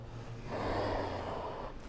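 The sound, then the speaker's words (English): A forceful, steady exhale pushed out through the mouth or nose during a yoga breathing exercise, a breathy rush lasting under two seconds, fairly loud with no talking. “Breathe out.”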